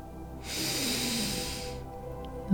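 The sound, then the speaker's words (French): A long, deep breath drawn in through the nose during a guided breathing exercise, a steady airy rush lasting over a second, fairly soft, with no talking. “Inspirez par le nez.”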